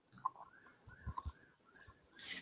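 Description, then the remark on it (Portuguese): Quiet ratcheting clicks from a mechanical wind-up watch being wound, arriving in a few short bursts with soft handling thumps between them and no talking. “tá dando, tá dando corda no relógio de corda.”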